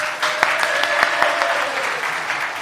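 An audience applauds someone called up to the front, a dense patter of many hands clapping steadily for a few seconds with a few sharper individual claps standing out, and faint tonal sounds running underneath.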